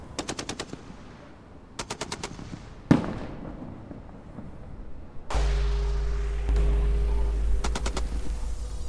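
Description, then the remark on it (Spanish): Rapid bursts of automatic gunfire from police crackle in several short volleys in Iguala, with a louder single crack between them and a steady low droning hum underneath later on. “Oye, nos están balaceando los policías aquí en Iguala.”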